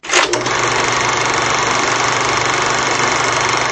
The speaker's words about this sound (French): Il est bien ce jingle, un peu, un peu de son il a, on s'en sert une fois par an, mais il est vraiment très bien.